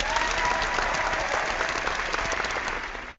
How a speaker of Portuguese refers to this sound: Achamos uma prova no norte do país, merece a salva de aplausos do nosso auditório.